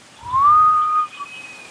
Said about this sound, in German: Ich denke, der Balistar war das jetzt gerade. Und ist auch ein sehr seltener Vogel, in freier Natur eigentlich schon ausgestorben oder war schon ausgestorben, hat man jetzt wieder Zeit teilweise ausgewildert.